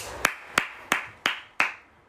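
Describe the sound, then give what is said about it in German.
Five crisp hand claps in a slow, steady rhythm, moderately loud, a brief small round of applause the hosts give themselves, with no voices over it. “Wir sehen auch heute wieder besonders gut aus, deswegen kleiner Applaus für uns.”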